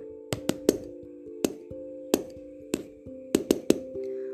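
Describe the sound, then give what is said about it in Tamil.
Sharp taps spelling SOS in Morse code: three quick knocks, three slower evenly spaced ones, then three quick knocks again, each with a short ringing resonance and no voices. “அதாவது ஒவ்வொரு எழுத்துக்கும் தட்டி ஒலி எழுப்புகிற ஒரு கோடு இருக்கும் எந்த எழுத்துக்கு எத்தனை முறை தட்டணும்னு மாலுமிகளுக்கும் விமானம் ஓட்டுற பைலட்டுக்கும் சொல்லி கொடுத்துருப்பாங்க இப்போ எக்ஸாம்பிளுக்கு எஸ்ஓஎஸ்னால் இப்படி தட்டி ஒலி எழுப்புவாங்க”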